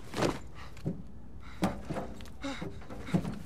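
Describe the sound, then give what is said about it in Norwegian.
A door closing, heard as a series of muffled wooden thumps and clunks spread over a few seconds, moderately quiet against a faint background hiss. “Og så hører du at døren lukker seg.”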